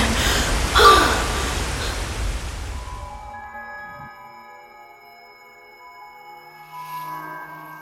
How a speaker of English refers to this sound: I don't know if I'm just concussed, but uh, the ringing in the tunnel, the moss on the walls.